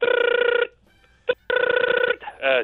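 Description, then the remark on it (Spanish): A telephone rings twice in loud, buzzing bursts separated by a short pause and a brief click, and then a voice begins speaking just as the second ring ends. “Suena el teléfono.”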